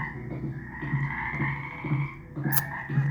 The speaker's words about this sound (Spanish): Debe ser un sapo. ¿Me ayudas a buscarlo, mamá?